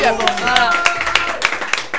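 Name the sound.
people applauding themselves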